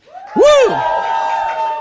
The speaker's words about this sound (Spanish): ¿Cuántos están contestos en esta mañana? ¡Uh, un grito de júbilo al Señor.